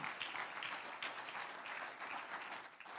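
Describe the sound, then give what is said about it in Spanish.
A crowd claps steadily, the dense patter of many hands, fairly loud and continuous for a few seconds with no talking over it. “Un aplauso al que vive, aleluya.”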